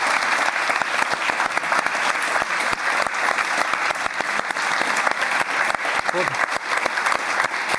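Loud, sustained applause from a large audience, dense rapid clapping filling the whole stretch with steady intensity and no pauses.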